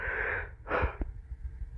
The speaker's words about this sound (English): I apologize for the yawn there. I'm very tired.